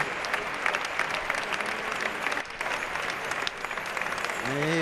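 A large bullring crowd gives an ovation to bullfighter Calerito at the sixth and last bull, from the Victoriano del Río ranch, after several failed attempts with the verduguillo; dense, steady clapping briefly dips midway, then swells again as a faint voice rises near the end.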